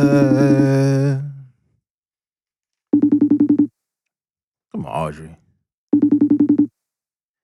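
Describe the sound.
A phone ringtone trills twice in short, rapid pulsing bursts a few seconds apart, fairly loud. A voice speaks before the first ring and briefly between the two.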